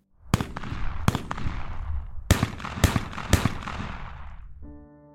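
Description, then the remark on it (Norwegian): A rapid string of hard, sharp shots from what sounds like a hunting rifle in a cabin area: a very quick first series, a short pause, then another, the cracks in quick pairs and clusters, each trailing off in a long echo across open ground, ending in a brief low buzzing tone. No one speaks. “Det hørtes ut for meg som et sånn jaktgevær, for det var jo ganske harde skudd.”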